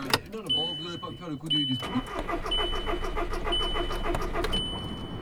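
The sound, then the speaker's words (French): A car engine that has not been driven for a long time cranks over and over without catching, a steady grinding churn, while a dashboard chime beeps about once a second. A voice is heard briefly just before the cranking. “Pourquoi tu démarres pas bon, ben La voiture veut plus démarrer.”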